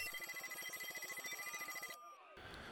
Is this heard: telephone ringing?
yes